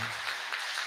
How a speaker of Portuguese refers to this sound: Vamos aplaudir mais forte, irmão?